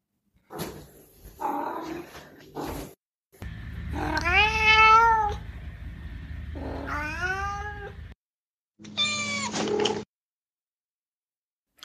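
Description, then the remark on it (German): A domestic cat gives a few short, friendly chirping meows and trills, in separate bursts with brief pauses between them and no one talking. “Und Gründe, warum die Katze diesen Laut benutzt, ist die freundliche Annäherung und Begrüßung oder auch im Spiel.”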